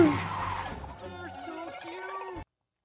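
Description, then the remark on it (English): A car skids hard on a freeway, a noisy rush giving way to a long, wavering tire squeal that cuts off abruptly after a couple of seconds, loud. “okay, it wasn't the big car accident.”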